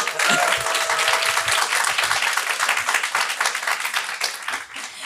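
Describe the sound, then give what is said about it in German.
A live audience at a live recording, in a room full of people, applauds to show how many are present: dense overlapping claps form a steady, loud wash of sound that holds for several seconds before easing slightly at the end. “Applaus”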